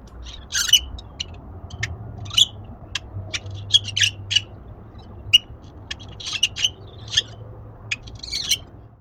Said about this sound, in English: That is actually the sound of the birds in my backyard. I realize they're not the prettiest, most Disney princess sing songy sounding birds, and I live in the suburbs, so there's still traffic noises around